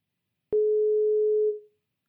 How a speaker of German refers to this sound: Was passiert? Unsere Telefonleitung ist weg.